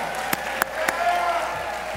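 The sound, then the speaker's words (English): An audience applauding a new ACB life member at an evening event: a steady, dense wash of clapping, with a few sharper individual claps standing out, holding a fairly even level throughout. “So let's give a big round of applause for our new life member”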